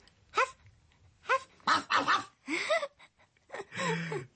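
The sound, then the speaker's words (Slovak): A big dog barks, about six deep, throaty woofs in an uneven series, some doubled up, with short pauses between them. “Havo, havo,”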